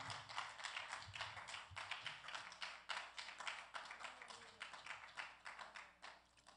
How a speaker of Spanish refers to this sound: Dele fuerte el aplauso al Eterno que Él vive.